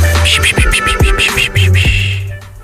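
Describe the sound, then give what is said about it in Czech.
A few heavy, dull knocks on a door, spaced unevenly, over a steady low humming background with no voices. “To bude asi Valentín, čuká na dveře.”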